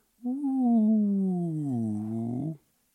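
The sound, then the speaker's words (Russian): A voice imitates a water bottle falling into a deep park waste bin whose acoustics make it seem about 20 metres deep: one sustained, resonant hum lasting about two seconds, sliding slowly downward in pitch, fairly loud, with no other sounds. “И когда ну, э, пользователь, прохожий этого парка проходил и решал сбрасывать, скажем, там, бутылочку воды в этот бак, акустика выдавала ощущение того, что там внутри просто, я не знаю, метров 20 глубины.”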